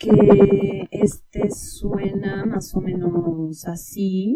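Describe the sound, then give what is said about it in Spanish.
A man speaks a short phrase, his voice run through a phaser effect so it takes on a sweeping, hollow, metallic tone throughout. “Bueno, y por último les quiero enseñar un poquito lo que sería el phaser, que también ocupan mucho en las voces”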